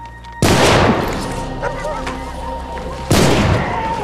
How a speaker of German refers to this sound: Reflexartig gehen die beiden Kommissare in Deckung. Die Schüsse haben Timofejew und seinen Sohn getroffen.